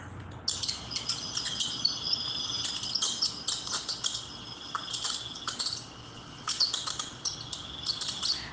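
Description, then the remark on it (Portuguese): A mouse squeaks softly, a steady stream of thin, high-pitched chirps in quick, uneven bursts lasting several seconds, with no voices. “Então diga, senhor ratinho, como é que você faz?”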